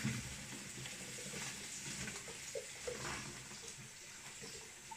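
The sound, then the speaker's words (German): Pasta cooking water is drained into a sink, a steady rush of pouring water with a continuous splashing hiss that stays fairly even for several seconds, with a few small clanks and no talking. “Wir gießen sie ab.”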